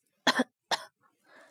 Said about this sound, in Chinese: 房里传来了咳嗽声，咳得非常用力，似乎要把肺都咳出来。